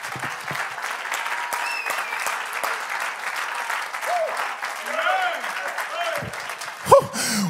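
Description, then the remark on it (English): A church audience claps their hands unto the Lord in steady, dense applause throughout, with scattered voices calling out over it and a brief louder shout near the end. “Clap your hands unto the Lord and magnify him in this house.”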